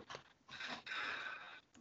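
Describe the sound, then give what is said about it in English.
Crackly crunching and tearing of a cardboard box as a dog chews it, in a couple of rough bursts with a longer scraping stretch in the middle, and no talking. “this dog will not stop eating this this box”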